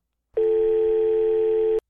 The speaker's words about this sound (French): La quatrième sonnerie tinta. L'aliénoïde enclencha le haut-parleur.